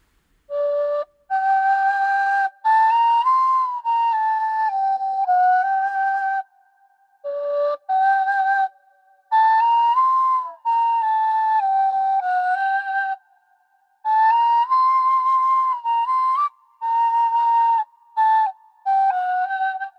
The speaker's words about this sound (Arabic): لا يمكن أن تمر هذه الإشارة دون أن أستغل وجود آلة الناي معك يا دكتورة شو رأيك خلينا نعمل مثال عملي نسمع مقطوعة المفضلة عندك